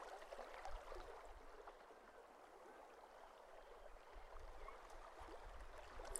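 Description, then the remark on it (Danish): Gentle water laps softly and continuously at a calm lakeshore, a quiet, steady wash with a faint low rumble beneath and no voices. “Geo bliver helt søvnig af lyden af det rolige vand.”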